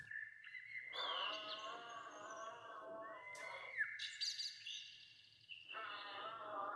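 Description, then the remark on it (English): A bird chirps and whistles in long, sliding high notes, three drawn-out phrases with brief pauses between them, fairly loud with no talking. “The bird wakes up extra early and performs his chirpiest song The sound of the bird chirping inspires the giraffe to clear his long, phlegmy throat.”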